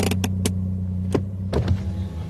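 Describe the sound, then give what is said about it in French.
A car's engine hums low and steady as the vehicle pulls over to the side of the road, with a few sharp clicks and soft knocks scattered over the idling drone; no one speaks. “Attends, je vais garer au bord de la route, comme ça on va pouvoir parler.”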